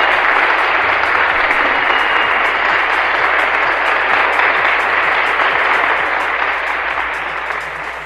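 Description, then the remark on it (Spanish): Dense, sustained audience applause fills the whole stretch, a steady roar of many hands clapping at once, loud and even, tapering slightly at the very end, with no voices over it. “Aplausos, por favor.”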